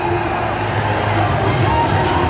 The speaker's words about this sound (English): Harry Kane playing? No, that cheer is not for Douglas Tank. Harry Kane is playing.